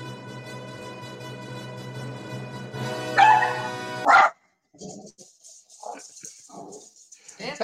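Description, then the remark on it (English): A dog barks twice, loudly, over a steady musical background. The music then cuts out and a man starts talking. “there goes my dog.”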